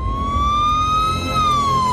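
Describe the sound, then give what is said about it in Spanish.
A police car siren wails loudly, its single tone slowly rising and then falling, over a steady low rumble of engine or traffic noise. “Al oír las sirenas de la policía, Pietro Arcán huyó.”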